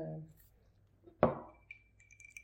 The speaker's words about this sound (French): pour que les gens entendent qu'on a des glaces.